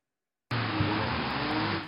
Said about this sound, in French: Sur ces images amateurs, des rodéos incessants, des dizaines de voitures lancées à pleine vitesse enchaînent les dérapages.